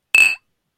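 A single bright, clear clink of glasses in a toast, with a sharp ring that fades within a fraction of a second, heard on its own.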